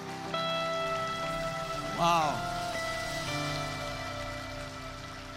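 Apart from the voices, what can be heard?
audience applauding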